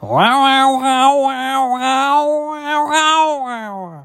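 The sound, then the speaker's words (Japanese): A human voice imitates a cat-like drawn-out wailing yowl that was heard from outside a toilet in a supermarket: one loud, continuous cry lasting about four seconds, wavering in pitch with a rhythmic warble, sung alone. “ちなみに今のは私の声ですがこの声とほぼ全く同じような声がトイレの外から聞こえたんですね私最初は猫か何かの鳴き声かなと思いました”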